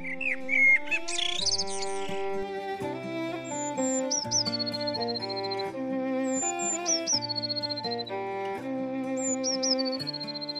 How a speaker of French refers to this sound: Les oiseaux, eux, commençaient leurs jolies chansons. Alors là, le bonhomme s'arrêtait de parler. Il écoutait leurs concert, et il était heureux